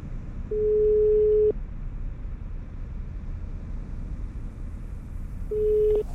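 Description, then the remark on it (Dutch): An outgoing call's ringing tone: a steady, clear beep lasting about a second, then a long pause before the next beep starts, over a low background rumble. No one speaks. “Ja, ik dacht ik bel jou, want jij bent natuurlijk de enige arts die ik ken.”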